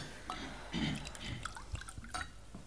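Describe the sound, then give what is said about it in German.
Water is poured into a glass for a witness during a court hearing, in a short, quiet burst of splashing and trickling, the liquid gurgling for a few seconds with no one speaking. “Bitte darf ich noch einen Schluck Wasser? Ja, geben Sie der Zeugin einen Schluck Wasser.”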